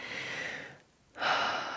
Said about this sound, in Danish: ja, dyb vejrtrækning